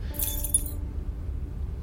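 A bunch of keys jangles briefly as one key is tried to unlock, a bright metallic jingle lasting under a second, then fades into a low, steady background rumble.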